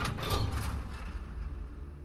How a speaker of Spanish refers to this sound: El símbolo emitió un breve destello activando el mecanismo. Y la puerta se abrió.